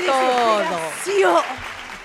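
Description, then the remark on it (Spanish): Loud, steady applause from a crowd welcoming a guest, lasting about two seconds, with voices cheering and calling out over the clapping. “Recibimos con este fuerte aplauso”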